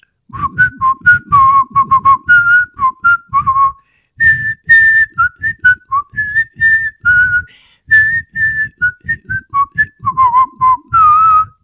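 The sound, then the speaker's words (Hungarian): A voice imitates the bugle wake-up call of the Hungarian army (Magyar Honvédség), carrying the melody alone as a steady run of short, clipped notes that rise and fall in pitch, with brief pauses, for about eleven seconds. “El tudnád dúdolni azt a kürt szót, amire ébredtetek?”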